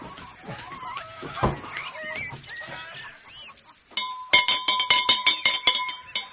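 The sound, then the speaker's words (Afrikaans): A bell is rung in a quick, steady series of about ten bright metallic clangs, loud and ringing, following a few seconds of chirping farmyard birds and a high steady hum. “Ek gaan die klok lei.”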